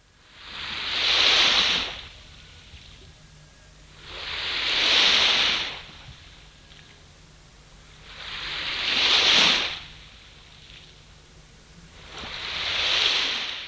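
Ocean waves wash onto the shore in a slow, steady rhythm, four soft surges rising and falling about every four seconds, with a quiet hiss between them and no voices.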